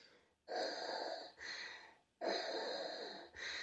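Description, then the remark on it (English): A voice imitates heavy respirator breathing: two slow, loud in-and-out cycles with a hissing, rasping tone, each breath split into a long inhale and a shorter exhale. “how does Darth Vader talk? Does he breathe like?”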